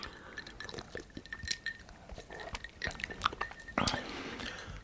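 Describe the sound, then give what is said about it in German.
Glasses clink together in a toast, leaving a faint ringing tone, followed by sipping and swallowing of a sweet spritzer along with soft clatter from handling the glasses. “So, ja, Prost. Ah, ich denke schon. Das, der süß gespritzte jetzt.”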